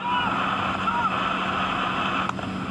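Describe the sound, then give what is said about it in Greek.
Powerful boat engines roar steadily, a continuous droning hum mixed with heavy wind buffeting and rushing water spray throughout, as a Kalymnos port authority patrol boat chases a speedboat at sea. “Το περιπολικό σκάφο του λιμεναρχείου Καλύμνου καταδιώκει ταχύπλο, το οποίο λίγη ώρα νωρίτερα είχε αποβιβάσει τέσσερι μετανάστε σε παραλία τη ΚΟ.”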